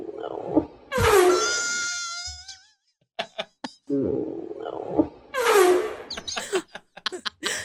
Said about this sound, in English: It's funny to me because I guess she had her friend hold the phone up and record it. And right before she farted, her friend was like, "Oh no."